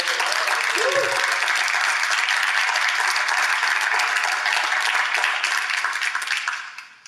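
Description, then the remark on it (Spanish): Loud, sustained audience applause with dense, crackling clapping for about six seconds, a brief vocal whoop rising above it early on, then the clapping thins and fades out. “Dale el mejor aplauso de la historia.”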